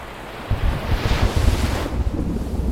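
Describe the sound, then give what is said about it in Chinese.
Strong sea wind roars and buffets over crashing waves, blowing ever faster and fiercer as dark clouds gather over the sea, a dense, continuous rumble that swells in gusts with broad hissing spray and no voices. “快速的聚拢了起来，就连海风也呼呼的越吹越快，越吹越凶。”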